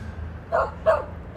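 A dog barks in quick succession, two sharp woofs a fraction of a second apart and a third starting, clear over a low background rumble.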